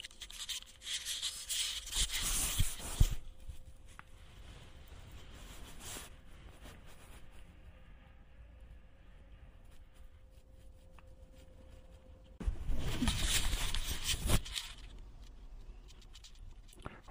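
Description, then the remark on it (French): Muffled rubbing and rustling of a bathrobe against a microphone and recorder hidden in the bathrobe pocket, in two bursts near the start and end, with quieter shuffling and a faint steady hum between them. “Je mets mon peignoir et je fous le micro dans l'enregistreur dans ma poche.”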